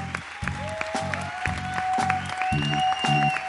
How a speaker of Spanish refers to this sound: Fuerte aplauso para ellos, por favor.